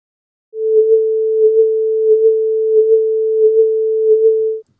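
A steady electronic alert tone in an internal audio link holds one pitch for about four seconds, with small paired blips pulsing regularly along it, loud and clean with no other sound around it.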